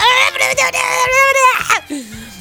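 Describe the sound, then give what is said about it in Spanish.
A person mimics crying with loud wailing sobs in a high, wavering voice, several drawn-out whimpering bursts ending in a lower, falling moan. “… llorando terminando la junta, cerrando el Zoom”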